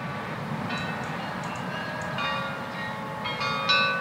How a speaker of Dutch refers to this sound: Opgepast, de uren komen eraan. U moet beginnen tellen. Het is zo'n klein melodietje van een viertal tonen. En in Baal speelt die voorslag op de kwartieren.